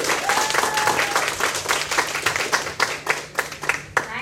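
An audience breaks into steady, enthusiastic applause, many hands clapping at once in a dense, continuous patter that stays loud throughout, with a faint steady tone beneath it, welcoming a consultant to speak at a 伊丝碧媞 skincare company event.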